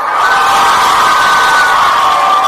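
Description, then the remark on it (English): A burst of children cheering and shouting together after being told the girls won a quiz round, loud and sustained for a couple of seconds, a dense high-pitched crowd roar with no clear words. “Girls won. Give me a cheer.”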